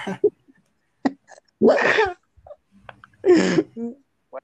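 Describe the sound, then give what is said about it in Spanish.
Two sharp, breathy sneezes burst out close by, a couple of seconds apart, with faint snuffles and small clicks in the quiet between them. “Me manchó de mocos, güey.”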